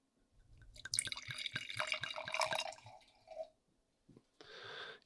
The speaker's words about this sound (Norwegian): Skal være raus og skjenke oppi til deg, som en eh, god venn skal gjøre.